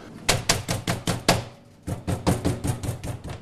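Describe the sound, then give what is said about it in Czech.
A meat mallet lightly taps the edges of folded veal layered with ham and cheese, being prepared as cordon bleu, a steady series of firm thuds in two bursts separated by a short pause, with no talking. “Lehce ty kraje uh, poklepu ještě paličkou,”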